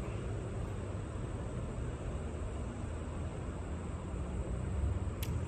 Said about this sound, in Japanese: あとはちょっと車がうるさいですね